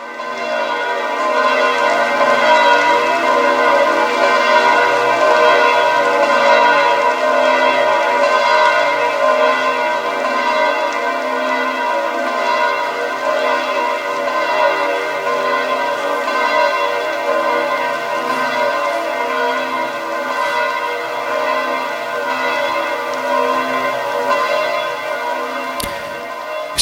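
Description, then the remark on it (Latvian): Church bells of Rome peal continuously and loudly during the blessing with the Blessed Sacrament, overlapping strokes forming a dense, ringing wash with steady rhythmic pulses throughout, heard alone without voices. “Šeit tad arī dzirdam, kā Romas zvani liecina par šo svarīgo brīdi.”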